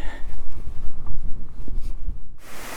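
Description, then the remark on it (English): Steady rushing water pours over the weir on the River Lim at Lyme Regis, a continuous roar mixed with low wind buffeting on the microphone, turning into a brighter, louder hiss in the final moments. “the Weir on the River Lim at Lyme Regis.”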